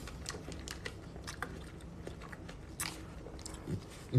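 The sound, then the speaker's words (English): Wet, crunchy biting and chewing of melon, with irregular soft crunches and squelches repeating over a few seconds, fairly quiet and with no talking. “I'm just recapping my day and eating some melons. Eating my little melon moment.”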